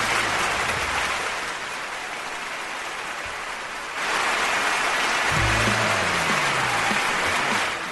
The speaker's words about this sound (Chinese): 你看，说的特别的好。通常说到这里边都有掌声啊。